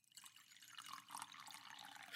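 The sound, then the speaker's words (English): Cytherea pours tea steadily into a cup at high tea on the table in the window, a continuous splashing trickle lasting a couple of seconds with a slight rise near the end. No voices are heard. “Cytherea is pouring the tea, and Owen is eating.”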